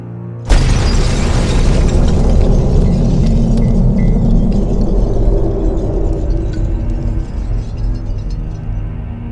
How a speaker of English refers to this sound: What was that? The car. It just exploded.